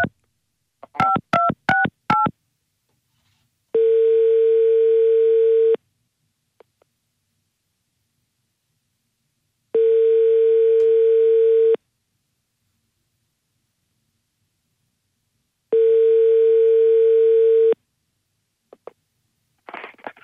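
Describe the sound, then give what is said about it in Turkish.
A quick burst of phone keypad tones as a number is dialed on a friend's phone, followed by three long, evenly spaced ringback tones with silent gaps between them, clear with no one talking; the call goes unanswered. “Arkadaşımdan arıyorum de şarjım bitti.”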